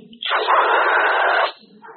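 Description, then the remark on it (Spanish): A voice imitates loudly slurping soup: one long, breathy sucking slurp lasting over a second, with brief quiet vocal sounds before and after. “Por ejemplo, es una cosa bien triste que cuando estemos comiendo con alguien, principalmente cuando no son muy conocidos nuestros, sorbamos la sopa al comer.”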